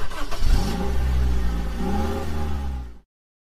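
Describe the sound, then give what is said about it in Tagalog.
A rented car's engine revs up with a rising, throaty roar as the vehicle pulls away carrying three people on a trip toward Bermuda, loud, holding steady for a few seconds before cutting off abruptly. “Sumakay na sa nirerentahang sasakyan ang tatlo at nagsimula ng bumiyahe patungong Bermuda.”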